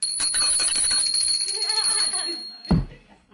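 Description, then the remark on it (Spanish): A hand bell is rung rapidly and loudly at a meeting, its bright metallic tone lingering as the shaking slows and fades, ending with a single dull thump. “Y si yo estoy coordinando, yo en el momento en que él hace eso, agarro la campana.”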